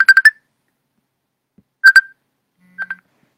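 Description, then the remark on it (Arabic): A phone's electronic ringing tone chirps in quick bursts during a phone call: a rapid cluster of beeps, a pause, a louder pair, then a softer pair. It is clear, with no one talking. “ها هو تا قطعت عاد صونا شويه في التليفون المهم عاود عاود صوني”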